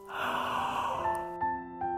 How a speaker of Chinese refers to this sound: 我打了个哈欠